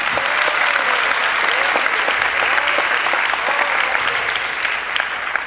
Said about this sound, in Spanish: Bueno, si va a aplaudir, aplaude con ganas.